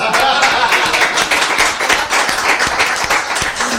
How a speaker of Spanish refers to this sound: ¿cuántos llevas? Diez. ¡Aplausos!